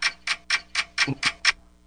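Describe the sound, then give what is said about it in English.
A timer started for a one-minute segment ticks seven times in a quick, steady rhythm, each tick a crisp, bright click about a quarter second apart, then stops. Faint low murmuring sits under a couple of the ticks. “I'm getting my timer. It's time for the minute clinic.”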